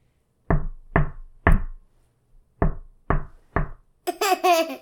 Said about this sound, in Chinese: 然后就对着房子里敲门，然后说：“有人在吗？”